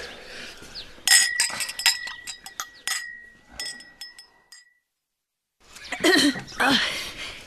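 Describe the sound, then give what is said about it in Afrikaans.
Glasses clink together for a toast to everyone's happiness: a quick cluster of bright, sharp chinks, one leaving a clear high ring that hangs for a few seconds, followed by a brief silence and then a burst of rustling noise. “Nou lig asseblief almal julle glase vir 'n heildronk.”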